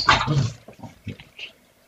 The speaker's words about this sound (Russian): Пес.